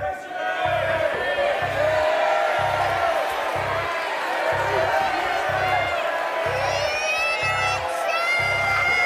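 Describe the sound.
A large crowd yells and cheers loudly and continuously, many voices overlapping in an excited roar as they shout "literature" to pick a quiz subject, with a steady low rhythmic thumping pulsing underneath throughout.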